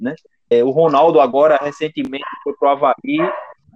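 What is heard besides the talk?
dog barking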